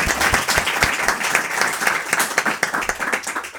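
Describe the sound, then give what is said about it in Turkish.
A short burst of applause welcoming the quiz sponsor Tayf, many hands clapping in a dense, steady patter at moderate loudness with no voices over it. “Tayf bize sponsor oldu. Ee, alkışlayalım.”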